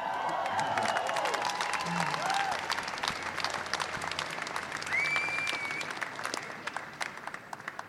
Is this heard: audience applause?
yes